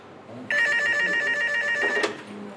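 A single long telephone ring, loud, sounds for about a second and a half before cutting off abruptly, with faint background murmur around it and no talking.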